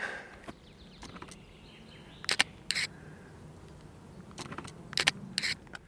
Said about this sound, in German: Ich finde, deine Kamera klingt sehr gut. Hat die da noch so einen Spiegel drin oder eigentlich nicht? Sie hat keinen Spiegel.